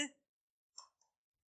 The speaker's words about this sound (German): in dem Moment, wo der Stift auf den Boden fällt, wurde das vor Grundlegung der Welt vorherbestimmt und so gelenkt, dass das jetzt genau zu dem Zeitpunkt passiert.